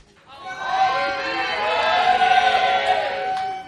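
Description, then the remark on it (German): A roomful of people in the second-largest room shouts "Auf Wiedersehen" together in one sustained, loud group call, many hollering at once and trailing off after a few seconds, with a reverberant indoor feel. “Mal sehen, ob die es ein bisschen lauter hinkriegen mit dem Auf Wiedersehen.”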